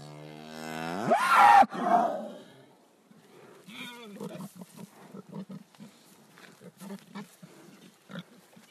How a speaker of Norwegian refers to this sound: Men hun, du hører jo kua. Hun, hun, hun har jo godlåt i seg. Hun ja. jager deg ikke vekk. Nei, gjør ikke det. Hun syns dette her er helt greit.